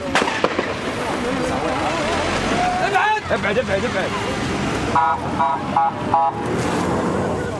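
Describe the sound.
Ambulance sirens sound in a rapid run of repeated tones partway through, rising over a loud, chaotic street scene of crowd voices, traffic and sharp bangs, as an ambulance carries away a stone-throwing boy shot in the leg by Israeli soldiers.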